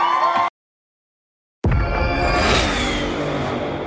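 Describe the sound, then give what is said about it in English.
After a brief pause, a powerful car engine of an estimated 500 horsepower bursts to life with a loud, deep roar, revving up and holding a strong, rumbling growl. “Did you hear that? That's what an estimated 500 horsepower sounds like.”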